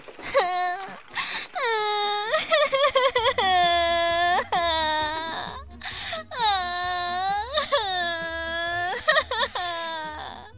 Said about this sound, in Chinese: 嗯，他听到了哭声。